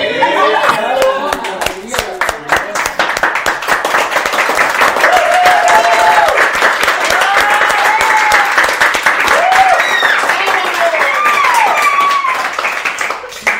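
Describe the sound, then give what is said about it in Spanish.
Steady applause from a group of people, loud and continuous for the whole stretch, with voices calling out and chattering over the clapping. “Y aplausos para quien nos ayudó.”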